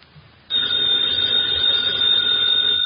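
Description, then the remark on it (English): A telephone bell bursts into loud, continuous ringing after a brief quiet moment, a bright metallic trill that carries on steadily without pause, with no voices. “Ladies and gentlemen, that phone bell means adventure.”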